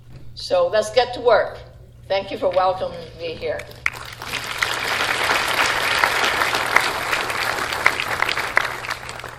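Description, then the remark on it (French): Speech for about four seconds, then sustained applause from town councillors, town hall staff, associations and the audience as a motion is passed unanimously, a dense steady patter of many hands clapping at an even loudness until the end. “La motion a pu être votée en faveur à l'unanimité sous les applaudissements des conseillers, du personnel de la mairie, des associations et de l'audience présente.”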